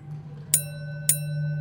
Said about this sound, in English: The bell rang twice.